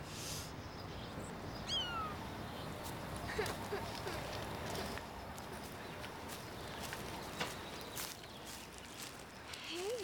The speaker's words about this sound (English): Oh, she has a kitty cat on a space station.